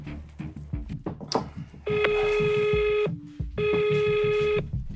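Rapid dialing beeps lead into two long, steady electronic ringback tones separated by a short pause, heard close and clearly as a phone call is placed.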